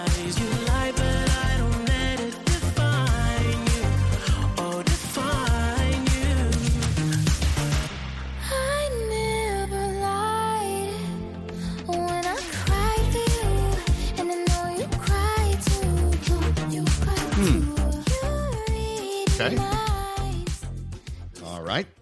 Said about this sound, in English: … just re- released a remix to his … featuring …